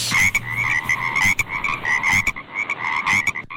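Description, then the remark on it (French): A Gardiner's Seychelles frog, a small tropical frog, calling: a steady stream of thin, high-pitched chirps and clicking notes, fairly loud, running for several seconds with no one speaking. “Et la dernière info, c'est sur les grenouilles gardinées.”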